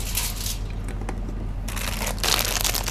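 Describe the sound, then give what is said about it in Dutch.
Thick, better-quality plastic foil crinkles and crackles as it is handled, with bursts of crisp rustling that grow louder near the end, over a low steady hum. “Dit is aanmerkfolie, maar die is echt veel dikker en betere kwaliteit.”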